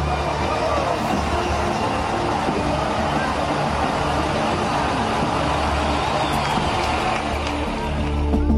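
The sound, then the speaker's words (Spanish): A heavy truck decorated with flags and balloons rumbles past at the reopening of the Colombia–Venezuela border, marking the restart of trade. Its deep engine drone is steady and loud, with a noisy crowd and indistinct voices murmuring underneath throughout. “Un camión adornado con banderas y globos simbolizó con su tránsito el inicio de los intercambios comerciales interrumpidos desde hace años, en un evento que estuvo presidido por el mandatario colombiano Gustavo Petro junto a varios de sus ministros.”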